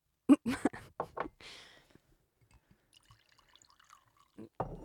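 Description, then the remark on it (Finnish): Red wine glugs from a freshly opened bottle into a glass in a few quick splashes, then a short steady pour, followed by faint scattered drips and a final soft clunk. “No niin, mä avaan nyt tästä tämän tota, punaviinipullon ja kaadan tällä töykeästi ensin itselleni.”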